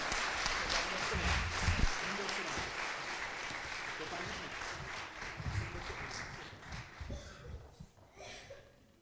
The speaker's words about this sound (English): Hey, give these guys another round of applause.